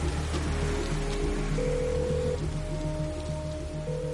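Heavy rain pours down at a motel in a steady, dense hiss, unbroken for the whole stretch, with low sustained musical tones humming underneath, in a Tom Cruise film trailer.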